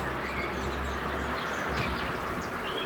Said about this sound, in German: Und man hört sogar, wie ein Auto über die Straße fährt.